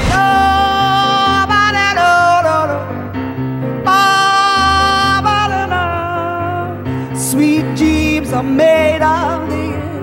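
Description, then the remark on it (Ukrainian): A sung pop song in a little-known, stripped-down acoustic arrangement later performed by the song's female co-writer, a clear voice holding long melodic notes with vibrato over steady, full instrumental backing, loud and continuous throughout. “Далі нас з вами чекає дуже цікава, маловідома акустична версія, яку пізніше виконала співавторка”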